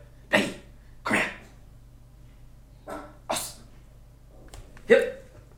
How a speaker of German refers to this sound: Wir oh, haben kleinen Moment, der Hund dreht gerade frei.